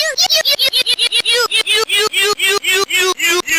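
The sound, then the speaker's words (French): A circuit-bent Dora the Explorer talking backpack, a children's toy, glitches out. Its electronic voice is chopped into a rapid, stuttering loop of repeated syllables that gradually slows, each fragment sliding upward in pitch. “C'est un jouet d'enfant, le sac à dos parlant de Dora l'exploratrice, qu'un bidouilleur astucieux a bricolé pour en extraire ses sons.”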